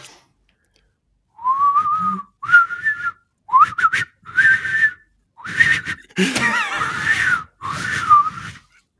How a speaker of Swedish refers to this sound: jag blev först orolig när du började vissla, men sen när det visade sig att du inte är den mest stabila visslaren i Sverige så kände jag mig trygg.